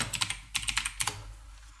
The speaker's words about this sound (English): Quick mechanical keyboard break because my um, Mac locked